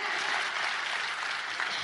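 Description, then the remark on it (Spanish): A steady burst of applause from a seminar audience, many hands clapping at once in a dense, even wash of sound that holds at a constant level for about two seconds, with no voices standing out. “Sí, un aplauso.”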